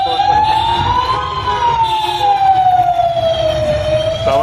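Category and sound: vehicle, emergency vehicle sirens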